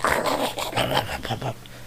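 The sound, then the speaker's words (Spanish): A person imitates a French bulldog's breathing with a quick run of raspy, snorting, growl-like snuffles, fairly loud, trailing off into quiet at the end. “Que parecía un, bulldog francés de estos ladrones ¿sabes? Respirando.”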